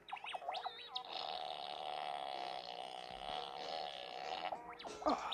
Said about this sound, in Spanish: Este, es más, aquí tengo mi robot de pedos para preguntarle, robot, ¿cómo nos estábamos tirando pedos ese día? Así.